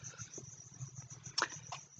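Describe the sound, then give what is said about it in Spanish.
A cricket chirps steadily in the background, a thin high-pitched trill running throughout, fairly faint, with a low hum underneath and a brief louder knock near the middle. “Lo que escuchan de fondo es un grillo.”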